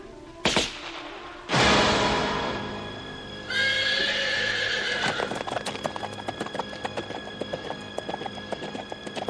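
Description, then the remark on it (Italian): A horse gives a loud, shrill whinny after a couple of sharp bangs, then hooves clip-clop in a steady rhythm until the end as a hunter spurs the horse along a shore. No one speaks. “Spronò il cavallo sulla riva di Laitawan, la spiaggia dalle onde celesti”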